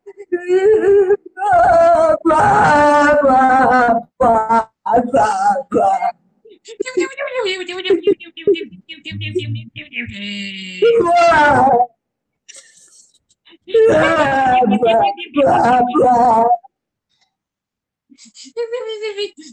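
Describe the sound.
Loud, theatrical wailing and sobbing from a voice, rising and wavering in long drawn-out bursts separated by short pauses, clearly overdone rather than genuine crying.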